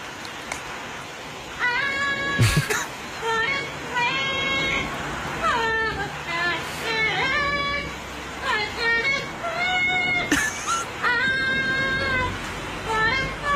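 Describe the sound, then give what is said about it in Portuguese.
A parrot sings a pop melody in shrill, nasal, warbling phrases, fairly loud, with short pauses between lines and a couple of sharp clicks in the background. “É um momento em que um papagaio é apanhado, entretido a cantar o … da …”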